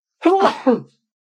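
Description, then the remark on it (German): A single loud, voiced sneeze: a rising breathy intake, a noisy burst, then a short tonal tail, over in under a second, followed by silence. “dass du genau jetzt niest, das ist ah.”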